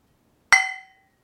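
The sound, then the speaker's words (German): A single bright clink of 0.5-litre beer bottles knocking together in a toast, its clear ringing tones fading out over about half a second, with silence before and after. “Ein einzelner schöner Klung.”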